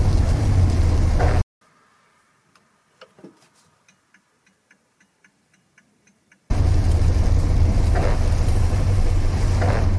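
Loud, steady rumble of a classic Morris Minor car driving, heard from inside, broken by a quiet stretch where a regular ticking clicks about twice a second before the engine roar returns.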